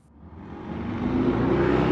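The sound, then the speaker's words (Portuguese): A truck approaches, its deep engine rumble swelling steadily louder over a couple of seconds as it draws near, with no voices present. “Só um momento caminhão vai tá passando.”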